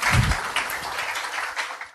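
A crowd breaks into steady applause to welcome a guest, many hands clapping in a dense, bright patter that holds at an even level for about two seconds before cutting off.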